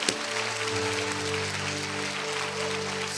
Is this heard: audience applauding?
yes